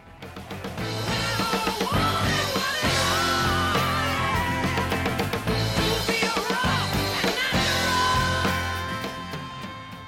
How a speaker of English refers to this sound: Yeah, that is raging. That is like the epitome of of loud rock and roll.